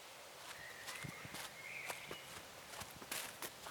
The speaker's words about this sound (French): L'étoac d'Uni, Agent mental expérimenté et célibataire, trottinait bien tranquillement lors de son footing matinal, ne cherchant pas à sauver ce qui l'entourait.